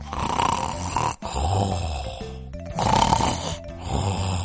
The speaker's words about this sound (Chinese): 小喜鹊和布谷鸟各自准备过冬的东西去了，等他们回来的时候。都罗还在呼呼大睡， 太阳都快下山了。